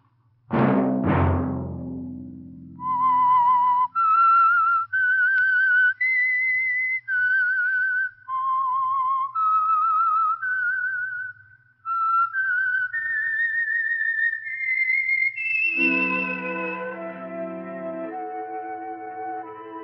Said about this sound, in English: Let that whistle be your signal for the Signal Oil program, The Whistler, each Sunday night at the same time.